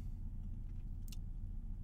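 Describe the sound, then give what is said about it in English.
A car engine idles in a parking lot about a mile from the airport in Fresno, with a steady, low, continuous rumble throughout, fairly loud, broken only by a brief high-pitched rattle partway through. No one speaks. “Um, it's not only in, the, in a running car in a parking lot, but we're also like a mile away from the, the airport in Fresno.”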